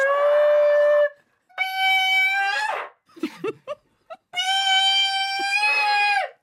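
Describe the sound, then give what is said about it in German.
Three long, shrill high sung notes blare through a megaphone at a held glass, each held steadily with a harsh, buzzy edge and slightly rising pitch, separated by brief breathy pauses and a few short vocal sounds. “einfach so mit dem Megafon”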